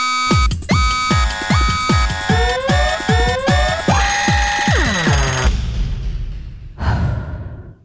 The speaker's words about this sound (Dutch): Weinig zo pijnlijk als ochtends vroeg uit een zoete droom gerukt worden door de schelle bel van je wekker